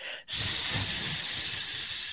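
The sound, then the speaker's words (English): A loud, steady hiss, depicting a star being quenched into an infinite sea, bursts in after a brief moment of quiet and holds for about two seconds. It is bright and airy, like steam from something red-hot being quenched, with a faint low rumble beneath. “the terrible hissing of a star being quenched into an infinite sea.”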